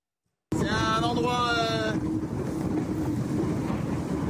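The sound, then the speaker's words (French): Loud, steady roar of wind and rushing water aboard Thomas Coville's Ultim racing trimaran at sea in a somewhat rough sea, with a wavering tonal whine during the first couple of seconds before the constant rush carries on alone. “Tiens, écoutez Thomas Coville depuis son bateau ultime face à un magnifique paysage.”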